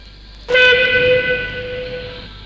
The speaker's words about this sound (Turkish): Galiba tren kalkıyor.